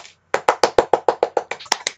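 Brief applause: about a dozen sharp, evenly spaced hand claps in a quick steady rhythm, fairly loud, with no voices over them.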